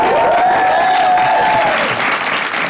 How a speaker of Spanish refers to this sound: Fuerte aplauso para él y gracias, amigo.